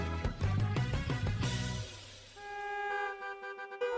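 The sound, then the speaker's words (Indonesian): Several car horns honk over one another in a congested street, starting as a loud overlapping cluster, then giving way to a long, steady blare with a few shorter toots near the end. “Duh, macet banget sih. Iya nih, macet banget.”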